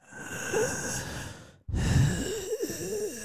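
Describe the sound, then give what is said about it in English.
A voice imitates the heavy, labored breathing of a very big person: a long, raspy inhale-like wheeze, a brief pause, then a strained, throaty exhale, fairly loud with no speech. “You ever sat next to somebody that's like really, really big and just listen to them breathe like that, where they're just like.”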